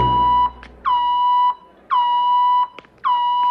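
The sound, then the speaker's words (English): A metal detector alarm beeps three times in a steady, evenly spaced rhythm, each tone a loud electronic blare lasting about half a second, with no talking, as a man walks through it. “But if that didn't happen, we wouldn't have had that line where he goes to the metal detector.”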